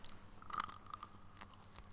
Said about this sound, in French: Mets-toi bien collé au micro, et tu écartes bien les lèvres et tu le croques Et je décapite l'ours au chocolat.